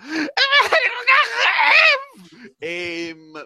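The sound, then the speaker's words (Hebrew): A voice lets out loud, exaggerated wailing sobs in the middle of a hallway, a long quavering cry that breaks off and then resumes in a second drawn-out, theatrical howl, unaccompanied. “בוכה באמצע המסדרון אה, בקול רם.”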